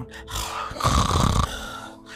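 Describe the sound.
A voice imitates a man's heavy, raspy panting, with a couple of rough breaths building into a louder, drawn-out wheezing exhale, alone without any words.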